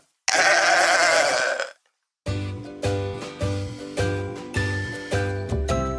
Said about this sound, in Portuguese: O bode é o bicho, é ou não é?